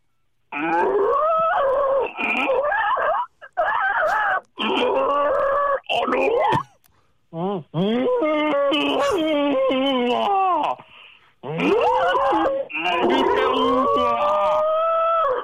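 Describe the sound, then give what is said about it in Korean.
Two people, one of them a pastor, imitate Hanwoo cattle mooing in a contest, telling each other life stories in cow voices. They trade long, drawn-out, wavering moos in loud bursts separated by short pauses, with pitch sliding and groaning throughout. “이제 한우 어, 소 목소리로 서로 인생 이야기를 해 주시기 바랍니다.”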